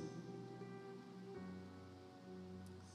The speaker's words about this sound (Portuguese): Você pode dar graças a Deus por essa chuva gostosa que está caindo lá fora? Olha que som bom!